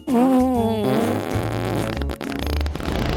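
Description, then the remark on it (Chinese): A long, loud, buzzy fart with a wobbling pitch at first, then breaking into a rough, sputtering rumble that lasts about three seconds. In a children's story, the eldest of the three little pigs lets it out by accident while hiding from the big bad wolf, and it blows down his straw house. “不小心放了一个大臭屁。”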